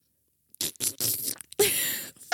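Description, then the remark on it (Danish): A voice imitates a wet splatting sound, a few sputtering, spluttery bursts followed by a longer messy splat, fairly loud with no words spoken, imitating bird droppings landing on a person leaving a café. “men det var en klatte oven. Og jeg kigger på Anna, og hun er dækket til af fuglelort”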